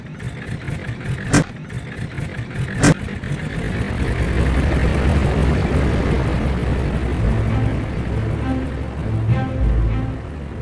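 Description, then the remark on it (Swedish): A small propeller airplane engine drones loudly and steadily in the dark before a flight across the border to Finland, swelling in after two sharp clicks at the start and holding a rough, continuous rumble to the end. No one speaks. “De två männen ska snart kliva ombord på det lilla flygplanet som i skydd av mörkret ska ta dem över gränsen till Finland.”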